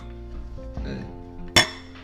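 Glasses clink together in a toast, one bright, ringing chink standing out sharply over a low background murmur and a few softer knocks just before it.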